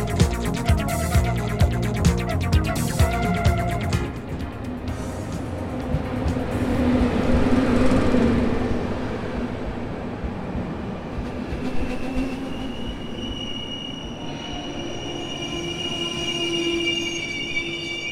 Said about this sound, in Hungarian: vonatozunk itt Budapesten belül. Most érkeztem meg Kelenföldre, csoda járgánya. 145-ös számú.